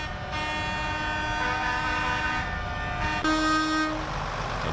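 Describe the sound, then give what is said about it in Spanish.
Tractor horns of protesting farmers in Italy blare together in a loud, sustained, overlapping chorus over a low engine rumble, and a higher horn cuts in briefly near the end. No one speaks. “Los agricultores han cortado autopistas y entrado también al interior de algunas ciudades haciendo sonar sus bocinas.”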